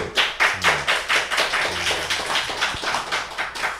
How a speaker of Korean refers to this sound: 박수.